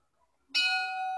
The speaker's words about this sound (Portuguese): Ah, tem aquela pausa dramática para tocar o sino. Toca o sino, toca o sino, toca o sino. Toca o sino. Pausa dramática para tocar o sino é dose.